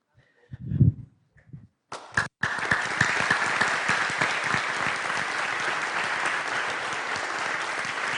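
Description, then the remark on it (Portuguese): A few scattered sounds, then an audience bursts into sustained applause after a prayer, applause meant for God, dense rapid clapping that stays loud and steady for several seconds without letting up. “Ah, eu sempre coloco que as palmas têm que ser para Deus, né?”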